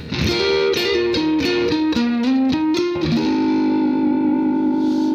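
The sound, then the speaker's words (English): A distorted electric guitar plays a quick run of notes, then slides up into a long sustained note. The player works the whammy bar after the slide, so the note wavers gently with vibrato. Loud, with no talking. “And so when we do that little slide, you want to grab your whammy bar and give it a little action there.”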